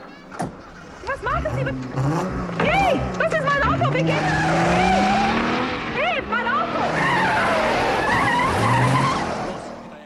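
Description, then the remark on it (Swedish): A car chase with an Alfa Romeo GTV6's engine revving hard and tires squealing through repeated skids, loud, the engine note rising and falling as the car swerves, with occasional voices mixed in. “Men det här är en av de absolut bästa biljakterna i en barnfilm. Och vilket ljud Alfa 6 har.”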